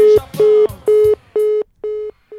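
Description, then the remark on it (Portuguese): A telephone busy signal: five steady, evenly spaced mid-pitched tones pulsing on and off, loud and alone, with faint clattering noise beneath the first few beeps. “É Ocupado, hein?”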